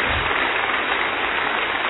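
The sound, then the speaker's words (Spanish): Steady audience applause, a dense crackle of many hands clapping at an even, sustained level for the whole two seconds, with no voices standing out above it. “Démosle otro aplauso.”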